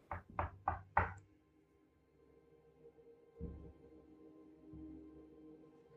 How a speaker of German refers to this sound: Du musst an diese Tür klopfen, weil du das Gefühl bekommst, das ist der Ort, an dem du jetzt sein musst. Ich klopfe an diese Tür und warte auf eine Reaktion.